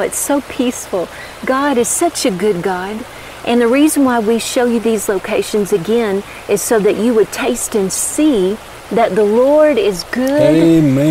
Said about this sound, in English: We've got these beautiful mountains around us, beautiful waterfalls. There's a creek running below us, yeah. and you can hear it as we're talking right now.